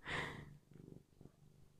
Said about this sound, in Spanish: No sé si se escucha el gato, pero está ronroneando.